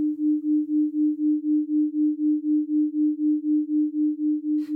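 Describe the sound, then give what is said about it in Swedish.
A steady low sine tone, a binaural beat from two tones heard at the same time, throbs in a smooth, even pulse, about four beats per second, wavering softly in loudness throughout with no voices, ending with a brief click. “Men när man har båda två samtidigt då, då blir det ett ljud som blir den här vibrationen, vom, vom, vom, vom, vom istället.”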